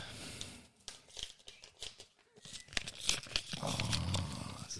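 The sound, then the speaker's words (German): The first envelope is torn open, with short irregular rips and crinkly paper rustling, then a louder, steadier stretch of tearing and crumpling toward the end. No one speaks. “Soll ich den ersten Briefumschlag öffnen?”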